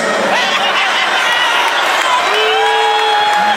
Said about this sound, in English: He got a couple of laugh, but mostly jeers and boos. Like he, like they're booing the hell out of him for a while, and this is like a ten minute video.